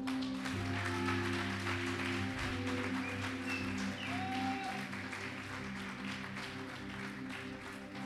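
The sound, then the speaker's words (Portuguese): An audience applauds the Lord steadily for several seconds, a dense, continuous wash of clapping with sustained low musical tones humming underneath. “Pega o teu pão, pode aplaudir o Senhor.”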